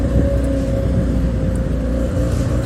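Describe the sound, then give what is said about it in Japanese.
Steady, loud roar of road traffic from a busy main street, a dense low rumble of passing engines and tyres filling the whole stretch without pause. “やばいやばいすげえ大通り来ちゃったやばいちょっと大通り来ちゃったんでそろそろ終わりにしようかこれうるさいないきなりグババ車の音が”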